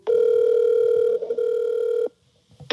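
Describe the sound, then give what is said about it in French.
A telephone ringback tone on an outgoing call: a steady, mid-pitched electronic tone lasting about two seconds with a brief dip partway through, then silence. No one speaks. “Je l'ai appelée pour qu'on revienne sur la réforme de la famille de 1981 sur laquelle elle avait travaillé”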